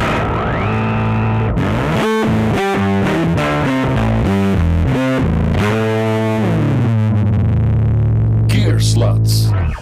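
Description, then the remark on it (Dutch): A distorted, effects-laden electric bass guitar, the player's own since his second year of secondary school, plays a loud, rhythmic riff of repeated low notes that step up and down in pitch, sustained, with no voices, ending in a noisy burst. “zit hier met zijnzelfde basgitaartje als dat hij had in het tweede middelbaar.”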